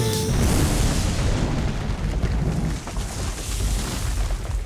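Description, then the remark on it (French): A loud, deep explosion boom with a rumbling, sustained low-end roar that lingers for several seconds without fading much, no voices present. “ça a fait l'effet d'une bombe presque atomique. Ça a. Boum!”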